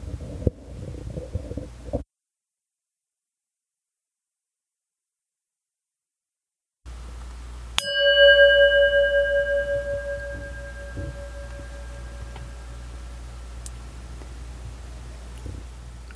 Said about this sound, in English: Let's prepare ourselves for meditation. I'll begin and end this session with the sound of the singing bowl.